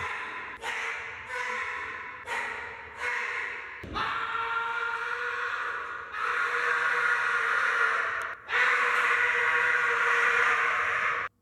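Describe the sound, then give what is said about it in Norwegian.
A man lets out a long, raspy roar as he strains to lift 360 kilograms, starting with short grunting bursts that build into a sustained, loud, gravelly bellow. “Og man kan høre på den litt lengre lyden av han som løfter disse 360 kiloene.”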